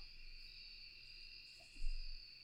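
Quiet forest ambience with a steady, high insect drone running throughout over a low outdoor rumble, and a brief soft bump near the end.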